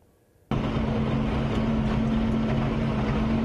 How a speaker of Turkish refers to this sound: Kepçeler, kamyonlar, dozerler tarım alanlarını talan etmeye son hızla devam ediyorlar.